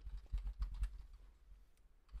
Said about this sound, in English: Um, you're typing in something. The resolution on the screen share isn't so great that I can see exactly what you're typing.